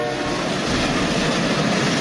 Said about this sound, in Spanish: ¿este sonido a qué tren corresponde? Es el Expreso del Este, que no hay que confundir con el famosísimo Oriente Express